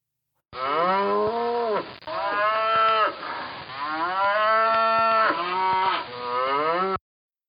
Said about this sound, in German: Welches Tier ist es? Es ist natürlich die Kuh, die macht Mu.